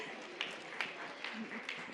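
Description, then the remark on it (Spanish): Faint audience applause after a children's song performance at a singing contest with a jury, a dense wash of clapping with a few sharper claps standing out in a steady rhythm, with voices murmuring underneath. “Aplauso”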